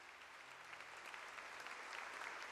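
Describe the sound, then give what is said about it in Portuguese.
A crowd applauds the Lord steadily, a dense wash of many hands clapping that holds an even, sustained level and swells slightly toward the end, with no voices on top. “Pode aplaudir o Senhor.”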